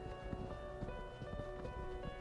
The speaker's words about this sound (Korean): 처벅 저벅 여러 사람의 발소리가 멀리서 들려왔다.